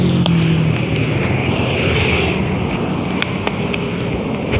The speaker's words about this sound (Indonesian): Maaf jika banyak gangguan. Karena seperti yang kalian dengar, saya ini sedang merekam di tepi jalan. Oh, Boleh di tepi jalan yang ramai dan padat ya tidak padat sih tapi ada kendaraan yang masih berlalu lalang dengan dengan banyaknya gitu